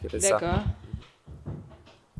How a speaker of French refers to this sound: moi qui essaie de déplacer la chaise pour pouvoir mettre mes pieds dessus.